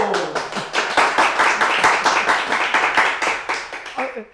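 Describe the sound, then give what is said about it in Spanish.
An audience applauds at the opening of the show Amar Abierto. Many hands clap in a dense, continuous patter that stays loud throughout before easing slightly at the end. “Bueno, estos aplausos deberían ser al final.”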